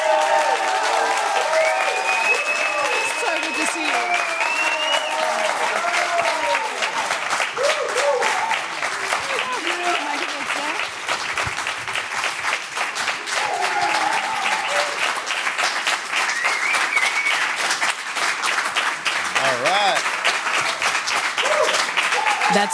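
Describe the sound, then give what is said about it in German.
Loud, sustained applause from a large audience welcoming a rock bassist as a guest, with dense clapping, whoops and shouted cheers continuing for over twenty seconds. “Ich bitte Sie um einen tosenden Applaus. Rasten Sie vollständig aus.”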